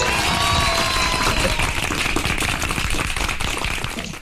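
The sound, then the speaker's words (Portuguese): Steady applause from a group for Alexandre Moraes, dense rapid clapping sustained at a constant loud level throughout, with a faint whistle-like tone in the first second and a half. “Palmas para o Alexandre Moraes!”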